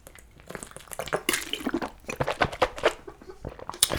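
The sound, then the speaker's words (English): Wet sloshing and gurgling of sparkling water being swished around in someone's mouth, with rapid squishy bursts and little bubbly pops over several seconds, no talking. “At first, I wasn't trying to be obnoxious, but then I'm like, fuck it, this stupid has bubbles. Now I'm just gonna fucking swish it around.”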